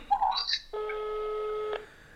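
A phone call's ringing tone: a few quick electronic beeps, then one steady buzzing ring lasting about a second, clear and close with no voices.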